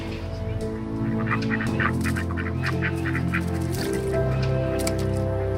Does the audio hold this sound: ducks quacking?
yes